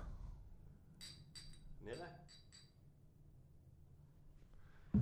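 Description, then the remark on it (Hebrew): A quick cluster of bright, ringing clinks as shot glasses tap together several times in a toast, fairly crisp, over a faint low background murmur. “יאללה, לחיים.”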